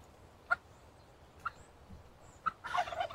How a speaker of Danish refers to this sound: Altså, vi har jo faktisk... Nogle kalkuner. Hvis det ikke skal være helt løgn.